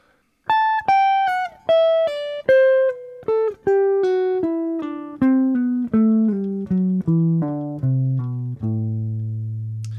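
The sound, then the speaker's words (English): A jazz guitar plays an (almost) slurred scale as a warmup exercise, using slides as slurs, running smoothly downward note by note from high to low in a steady rhythm, the final low note ringing out longer. No one talks. “Jazz Guitar Warmup: (Almost) Slurred Scale Exercise”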